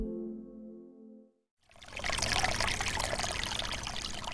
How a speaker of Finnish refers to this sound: Tästä Pikkalan lähteestä alkaa pieni puro. Sitä katsoessa tajuaa, että vieressä olevassa lähteessä on pakko olla jotain erikoista. Puron on paikoitellen ruosteen ruskea. Vedessä on siis rautaa.